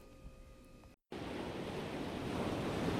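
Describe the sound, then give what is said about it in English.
Pacific Ocean waves crash against the shore at the UC Santa Barbara campus in a steady, broad roar of surf. A quieter hum precedes a brief silent gap, then the wash of water swells loud and continuous. “The Pacific Ocean crashing against the shores of UC Santa Barbara every morning, noon, and night.”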